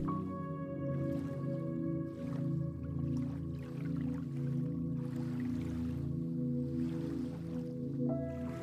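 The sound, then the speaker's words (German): Soft, gentle lapping of lake water, quiet and continuous, sitting beneath a steady, sustained musical drone with no one speaking. “Das Wasser auf dem See bewegt sich ganz leicht und ruhig.”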